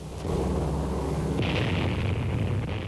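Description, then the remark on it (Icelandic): A deep, sustained roar of a massive atomic bomb explosion at Bikini, the first dropped there by an American aircraft on 1 July 1946 in Army-Navy tests, rumbles continuously at full loudness, heavy low-end with a hissy, degraded quality typical of an old archival recording; no voices. “1. júli 1946 varpaði bandarísk sprengjuflúel fyrstu kjarnokkusprengjunni á Bikini.”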